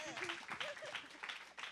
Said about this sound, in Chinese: 掌声 耶！欢迎欢迎。